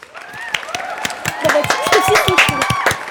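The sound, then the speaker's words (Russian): Irregular hand claps, a dozen or so sharp slaps in an uneven rhythm, with excited voices and whoop-like tones rising and falling over them. “Я сейчас встану и буду аплодировать, потому что, потому что чел.”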